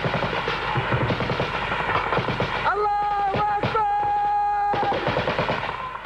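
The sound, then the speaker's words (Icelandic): Loud bursts of rapid gunfire from a filmed militant attack on Russian soldiers crackle almost continuously, with heavier booming explosions mixed in and a sustained tonal cry or whine rising above the shooting midway through. “Svo útbygguðir myndbönd af árásum sínum og blóðsútellingum, vídjó sem síndu sprengingarnar og deyjandi rúsneska hermenn.”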